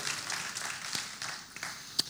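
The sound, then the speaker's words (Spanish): A church audience applauds the Lord for National Bible Day in a dense, steady wash of clapping at a fairly soft level, with a few sharper individual claps popping out near the end and no voices over it. “Dale un fuerte aplauso al Señor por el Día Nacional de la Biblia y estamos celebrando en el día de hoy.”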